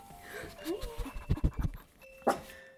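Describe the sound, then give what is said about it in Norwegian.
A pet dog panting in a quick run of breathy, rhythmic huffs, with a few faint tonal chimes and soft background noise around it. “jeg har hund i dag. Sophie, kom her. Kom her.”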